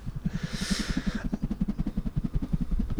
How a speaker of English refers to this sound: Is someone choppering in? It's a, it's a helicopter. That would have sounded better, but the thing I made the noise with, I broke it this morning.